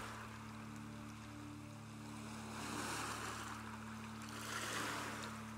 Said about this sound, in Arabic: وتابع نفسك كأنك بتتفرج على موج البحر وهو بيجي على الشط انت ما عندكش اي سيطرة على موج البحر بس بتتفرج بتستمتع بحركة الموج وصوته اسمع نفسك زي ما بتسمع موج البحر ومع كل موجة ارتاح أكتر واستمتع بلحظة الهدوء دي